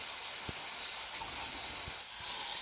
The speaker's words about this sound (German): So, Pürierstab kann ich mir schon mal bereitlegen. Habe ich jetzt hier noch in einem anderen Projekt, darum muss ich den einmal kurz abspülen.